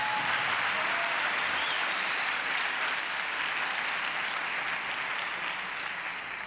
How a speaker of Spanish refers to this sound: Me gustaría que le dé un aplauso al Señor